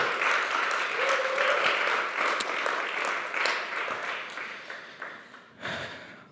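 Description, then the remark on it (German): An audience applauds with dense, continuous clapping that stays steady before gradually thinning, then a brief renewed burst near the end. A faint cheer rises briefly in the middle. “Gib mir jetzt nochmal einen Applaus.”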